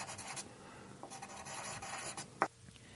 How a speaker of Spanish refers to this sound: Reflexioné mucho en ese momento sobre las aventuras de la jungla y a mi vez logré trazar con un lápiz de colores mi primer dibujo. Mi dibujo número uno era de esta manera.